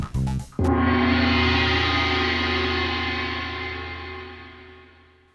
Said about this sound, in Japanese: よりによってさ変身ベルトの音を要求してくるリクエストって珍しいですよねでも僕はこういう風に作りましたということでお聴きください